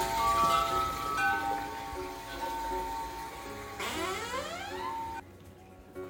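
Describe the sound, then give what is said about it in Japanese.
Sustained metallic tones ring out in overlapping layers from a chime sounding outside a home in Los Angeles, with a rising sweep of pitches near the end before the sound cuts off abruptly into quiet. “まあそうしようと思ったら、外からね、すごいチャイムの音が鳴ってね、まあ、一番この冒頭で皆さんに聞いていただいたチャイムなんだけどあやっぱりチャイムの音が綺麗だなそれならチャイムの音を入れながらオープニングにしようと思ってね外に出たんですよ。”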